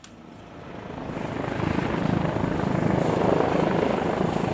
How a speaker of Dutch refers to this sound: Het geluid wat je nu op de achtergrond hoort, is de traumahelikopter die ter plaatse komt met een arts aan boord.